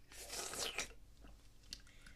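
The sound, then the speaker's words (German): Loud crunching of M&M's chocolate candies with nuts, a dense burst of crisp bites at first, then quieter scattered chewing crackles trailing off. “Da haben wir noch so Schule, äh, äh so tolle M&M's mit Nuss drin.”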